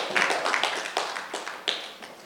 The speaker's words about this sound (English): Clap your hands together for Jesus and stand to your feet.